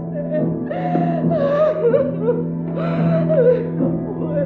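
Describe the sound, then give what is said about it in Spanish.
A woman, a daughter in her bedroom, sobs and whimpers for several seconds, heard from a distance, her voice wavering and breaking in strained, high-pitched cries with short catching breaths, fairly loud, with no other sounds. “A lo lejos se escuchó el llanto de su hija.”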